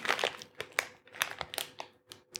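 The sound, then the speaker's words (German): Crinkling of a tiny bag of crispy baked pretzel snacks (Brezli) as it is opened, a quick series of sharp, bright rustles and crackles at an irregular rhythm, fairly faint, with no talking. “Es ist auch wieder ein, ein, ein wirkliches winziges Tütchen.”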